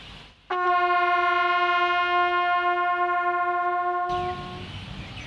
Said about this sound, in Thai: น้องคะคือพี่สังเกตมาสักพักหนึ่งแล้ว แล้วพี่ก็สงสัยว่าแตรเดี่ยวเนี่ยค่ะ มันไม่มีปุ่มกดหรือมีรูอะไรเลยมันมีหลักการทำงานยังไงบ้างอะคะ ที่มันมีหลากหลายเสียงอย่างนี้ได้ เสียงเกิดจากการสั่นสะเทือนของริมฝีปากครับผม